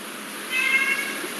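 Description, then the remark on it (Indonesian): A single cat meows once, a short drawn-out call of moderate loudness that stands out against a faint, steady background hiss. No one speaks. “benar-benar ini ada iklan kucing bentar ya mas ya”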